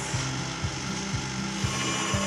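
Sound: electric kitchen mixer running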